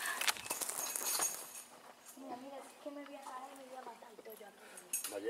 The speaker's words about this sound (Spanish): Mira, estos son los ladrillos que se han escuchado pisar, tío. Pero como chocando uno encima de otro.